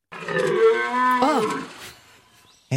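A single deep, drawn-out bellow from a stag during the rut in early October, loud, with a rich harmonic moan that rises briefly midway before trailing off into quiet.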